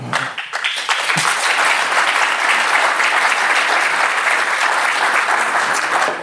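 Sustained audience applause, a dense, steady wash of many hands clapping at an even, loud level throughout, with no voices standing out.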